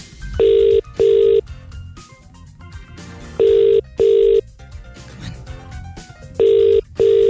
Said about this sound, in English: The phone's ringing